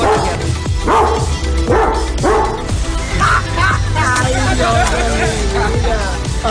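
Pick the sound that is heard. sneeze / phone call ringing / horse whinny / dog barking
dog barking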